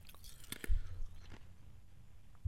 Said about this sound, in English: Oh, that's some good podcasting where I just decided to chew a big mouthful of ice there. Classic.